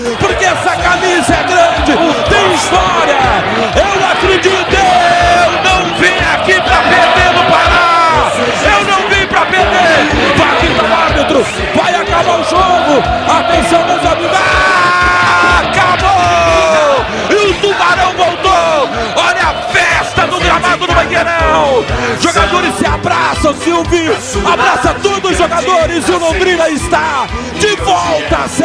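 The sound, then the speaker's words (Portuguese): A dense crowd of football fans cheers and yells in the street in Brazil, waving flags, a loud, continuous roar of many voices with shouts and whoops rising above it, plus sharp thumping bangs of fireworks and rockets scattered throughout. “Fogos, rojões, bandeiras, sacudidas, galera na rua vibrando.”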